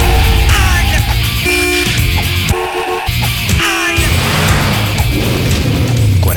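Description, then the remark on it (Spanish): A Chevy's brakes screech loudly in a long, drawn-out 10-meter skid on Avenida Independencia, with shrill squealing tones wavering over rumbling traffic noise for several seconds. “Focalizo y una frenada de 10 metros chilla mis oídos y me hace dar vuelta.”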